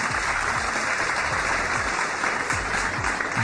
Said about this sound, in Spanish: Aplausos para nuestro oyente.